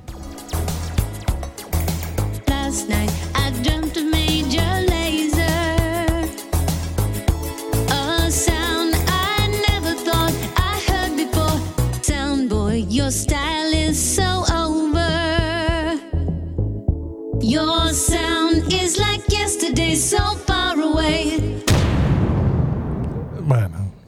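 A sung pop song plays as a DJ dubplate, a vocal line riding over a steady, punchy beat and bright instrumentation, loud and continuous before a short drop near the end.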